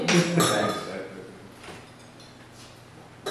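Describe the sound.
Glasses of tequila clink together in a quick toast, a bright cluster of knocks at the start, then a couple of lighter taps, with faint voices murmuring in the background.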